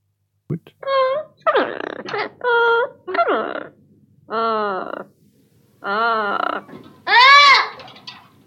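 A South American parrot gives a series of about seven loud, harsh, nasal squawks, each call short and separated by brief pauses, with the final one the loudest.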